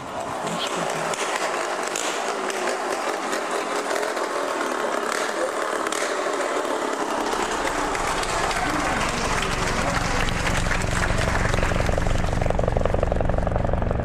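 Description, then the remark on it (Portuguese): A helicopter roars loudly and steadily, its whine and rushing noise filling the scene. Midway through, a deep throbbing engine rumble grows stronger, as though the aircraft is passing overhead. “Então e agora vamos de helicóptero?”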